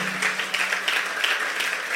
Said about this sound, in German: Hey, lasst uns einfach nochmal den Solar-Leuten einen riesen Applaus geben. Komm, lass uns die feiern. Lass uns die feiern.